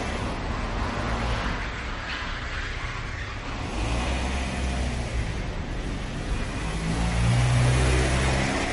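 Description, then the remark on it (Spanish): A car engine runs steadily with a broad rumbling hum that swells louder near the end as the car drives out of a parking garage and accelerates away. No one speaks. “Abandona el aparcamiento.”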